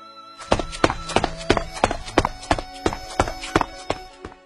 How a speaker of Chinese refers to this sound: 哒哒哒哒哒，那脚步声远去了。